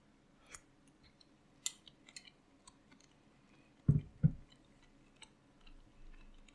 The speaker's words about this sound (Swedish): Det blev lite mindre pyttipanna än jag trodde för att jag hade för mycket grädde tror jag. Men annars hade det nog varit i princip det. Uh, och vi tar en tugga till nu.